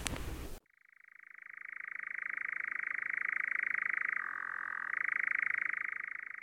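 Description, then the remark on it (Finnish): A European nightjar from a nesting pair churring: a long, unbroken mechanical trill held at a steady pitch, briefly dropping lower before rising again, preceded by a short burst of noise. “Joo, tässä on nyt semmoinen hetki, että me ollaan tännyen osalta ihan riittävästi häiritty tämän pesivän kehräjäparin elämää ja on aika koota kaikki varusteet ja poistua täältä ja jättää linnut rauhaan.”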